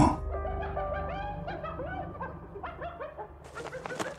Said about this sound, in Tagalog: Babalik na rin sana ako sa higaan ko nang bigla na naman akong may marinig na kakaibang tunog sa labas. Kung pamilyar kayo sa tunog ng mga nagtatawa ng hayina, ganun ganon ang narinig ko.